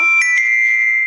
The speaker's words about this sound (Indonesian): handphone aku lagi bunyi Tokopedia